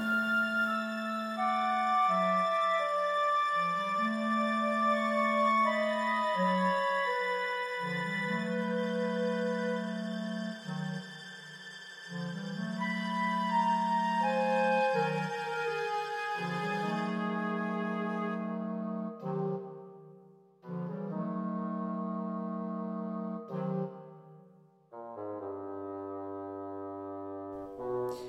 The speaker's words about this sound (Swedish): Det här var som symfonin lät den 11 januari